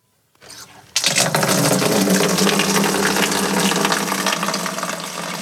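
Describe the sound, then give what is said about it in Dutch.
A steady stream of urine splashes into water, starting abruptly after a brief quiet moment and continuing as a loud, continuous trickling gush without pause. “ja, dan begint het dus hè, met urinatie.”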